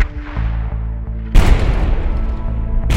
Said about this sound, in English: Two explosions kick up dirt and pulverize a nearby blow up tank.